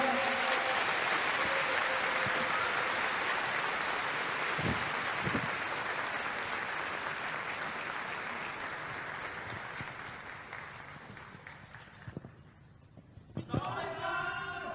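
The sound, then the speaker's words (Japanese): Sustained audience applause for about twelve seconds as a speaker is introduced, a dense steady clatter of many hands that gradually thins and fades, followed by a few moments of quieter background sound and a brief voice. “皆様大きな拍手をお願いいたします”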